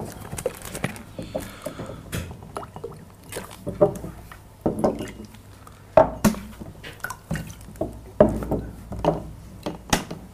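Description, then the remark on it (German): Water splashes and trickles into a glass, with irregular clinks and drips over about ten seconds while people talk quietly in the background. “Will noch jemand Wasser?”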